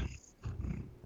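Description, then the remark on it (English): Lonnie, a domestic cat, purrs heavily right up against the microphone, a loud, low rumbling that swells in two breathy pulses with no talking. “I don't know which cat that is, but that's Lonnie, who's purring heavily into the microphone.”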